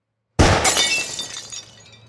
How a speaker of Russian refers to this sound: Первая экспансивная пуля разминулась с головой Леннона и выбила в Дакоте стекло, но у Чепмана оставалось еще четыре выстрела.